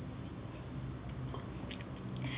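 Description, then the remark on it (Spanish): A long, steady slurping sip of freshly brewed coffee, the first of the day, fairly quiet, with a few small wet clicks near the end and no talking, in Cuba. “Después de este primer y largo sorbido del día”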